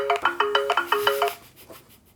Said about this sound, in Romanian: Astea sunt toate notificările de la pagini. Când deschid paginile, mi ah. apar toate notificările de, de la... Facebook?